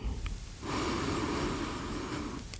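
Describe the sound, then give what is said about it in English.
A single long, deep breath drawn in at the end of a breathing meditation practice, a steady airy rush lasting about two seconds after a brief quiet start, with no talking. “And you're going to end your practice by going back to your breathing.”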